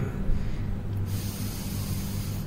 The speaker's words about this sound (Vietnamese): lúc này mình làm sao bèn à, hít sâu lại giữ trong người một chút thở ra khoảng 10 hơi